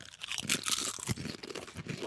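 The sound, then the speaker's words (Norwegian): Crisp crunching of Lady Claire potato chips being bitten and chewed, a quick run of irregular, brittle crackles with a sharp louder snap near the middle, and no talking. “Okay, da spiser Klare? vi.”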